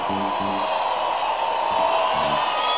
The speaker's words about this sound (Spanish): Quiero escuchar un fuerte aplauso, un fuerte y caluroso aplauso que se escuche por toda Bogotá para la Orquesta Filarmónica de Bogotá. 80 maestros.